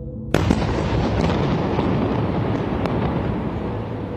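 A sudden loud blast opens into a sustained, heavy roar of rumbling and crackling, punctuated by a few sharper bangs, from Hamas rocket attacks striking several areas of Israel on Saturday, 7 October. No one speaks.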